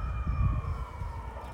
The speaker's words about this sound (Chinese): 天哪！救护车什么一大堆。